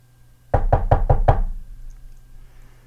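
Five quick, even knocks on the wooden door of Mr. Isaac Harris's office, fairly loud, followed by a brief hush with low room hum.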